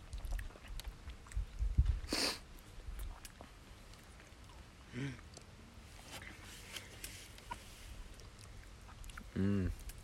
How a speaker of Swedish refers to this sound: Nej, men, eh, vi gör så att ni får ta tugga bett eller någonting liksom. Eh, smaka glassen. Se till att få med kolan.